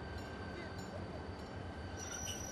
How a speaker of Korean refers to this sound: 기차는 전시의 평상 속도인 시속 20km 이하로 카탈로니아를 천천히 빠져나가더니 이윽고 아라곤 고원지대로 다가갔다.